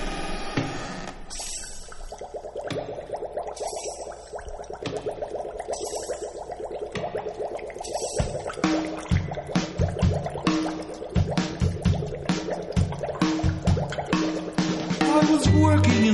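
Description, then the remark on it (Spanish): Bubbling, dripping sound effects open a novelty Halloween dance song, then a band comes in around halfway with a steady, bouncy bass-and-drum rhythm, loud. “Él es …. Esto se llama ….”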